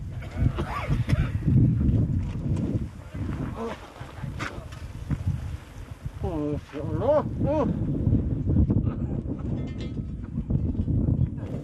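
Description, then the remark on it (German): Strong wind on a volcano, blowing from all directions, roars steadily throughout, a dense low rumble with gusty buffeting, while a voice or two briefly rises over it partway through. “denn der Wind bläst aus allen Richtungen.”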